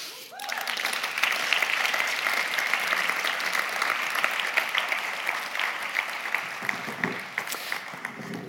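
Sustained applause from an audience, a dense, even clatter of many hands clapping that swells quickly and holds steady for several seconds before tapering slightly at the end.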